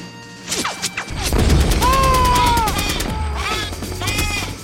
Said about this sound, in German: Aber es ist so laut, die Raketeneinschläge und das Maschinengewehrfeuer, die sind so laut